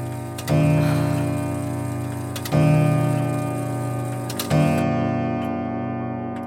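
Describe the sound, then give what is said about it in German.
A clock that chimes every 15 minutes ticks with three loud, evenly spaced beats about two seconds apart, each followed by a sustained, humming resonant tone. No one speaks. “wie ich diese Uhr liebe.”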